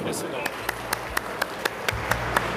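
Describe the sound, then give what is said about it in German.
Steady, evenly spaced clapping by an audience, about ten sharp claps in a quick regular rhythm, with a low murmur of voices underneath. “nicht reden, klatschen, immer klatschen.”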